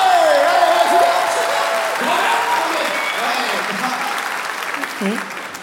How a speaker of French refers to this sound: Applaudissements.